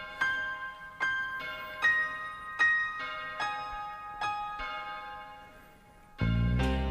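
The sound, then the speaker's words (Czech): A bell tolls at a steady, slow pace in a rock song, each ringing strike decaying into the next, keeping the same rhythm throughout, before a loud, heavy band bursts in at the very end. “A mimochodem, eh, pokud jste blázni a rádi posloucháte ten zvon, tak zní celou skladbu. No, pořád. pořád tam zní ve stejném rytmu.”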